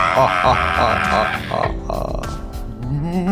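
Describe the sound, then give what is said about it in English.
A voice imitates a ghoul with loud, raspy, guttural growls and croaking groans, continuous for a few seconds before a strained moan that rises in pitch at the end. “I really like that sound effect. I feel like if I specialise in anything, it's a ghoul sound effect.”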